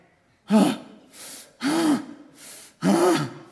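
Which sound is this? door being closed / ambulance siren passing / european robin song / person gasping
person gasping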